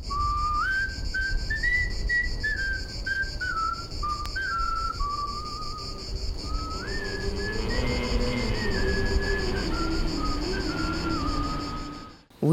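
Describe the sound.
A slow, clear whistled melody of a French Resistance song, moving in steady stepwise phrases over a constant background hiss and low hum, with lower tones joining partway through.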